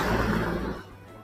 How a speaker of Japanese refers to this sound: ちょっと車が通るところに来ましたんで、うるさいかもしれませんが、